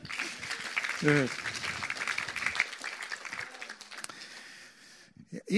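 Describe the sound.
An audience bursts into steady applause, a dense crackle of many hands clapping for several seconds, with a brief voice calling out early on before the clapping fades away.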